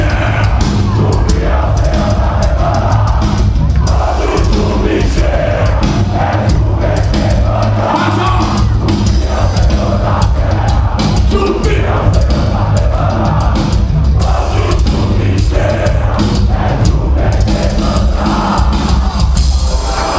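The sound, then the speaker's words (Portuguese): A packed concert crowd at a metal show in a new venue in Brazil cheers wildly as a singer calls his brother to the stage: a loud, unbroken roar of shouting and whooping with a heavy low rumble underneath, holding at full intensity for the whole twenty seconds. “A galera vai ao delírio.”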